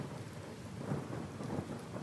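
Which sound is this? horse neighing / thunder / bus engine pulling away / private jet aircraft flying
thunder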